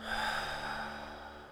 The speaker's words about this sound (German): Atme ein paar Mal tief durch. Atme ein. Atme aus